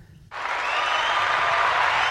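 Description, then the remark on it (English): A short burst of applause from a group of people, dense and steady, starting abruptly and stopping after about two seconds, fairly loud. “Let's clap it up for that.”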